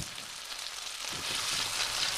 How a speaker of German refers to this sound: Zu guter Letzt werden die Gnocchi dann mit etwas Butter, Wasser, Tomatenwürfeln, Lauch und Rosmarin angebraten.